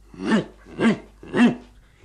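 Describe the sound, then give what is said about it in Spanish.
Three short, throaty pig grunts in a steady rhythm, each a rough, nasal burst about half a second apart, moderately loud with no talking. “Un cochino que gruñó.”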